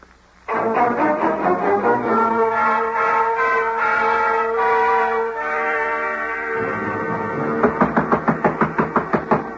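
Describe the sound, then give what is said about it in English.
Sustained orchestral music swells, then near the end a run of about ten quick, evenly spaced thuds sounds out: Mr. Dillard, with his walking cane out, climbing the stairs after Julie and knocking on a door, fairly loud. “I do believe Mr. Dillard is going up the stairs after Julie.”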